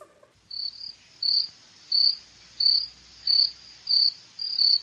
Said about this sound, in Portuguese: Ouço grilos.